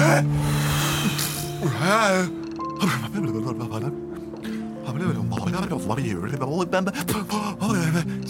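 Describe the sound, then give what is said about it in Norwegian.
A creature with gills breathes loudly through its mouth, with deep breaths drawn in and pushed out several times, mixed with gasps and voiced, groaning sounds. “Jeg puster, jeg kan puste ut av snakkehullet mitt, og ikke bare disse her gjellene på sida.”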